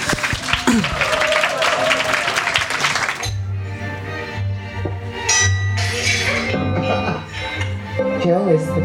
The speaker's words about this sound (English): give him a big warm applause, please.